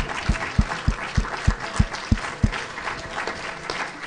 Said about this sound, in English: Love our pastor. We love our first lady. Amen. Let's give them a hand.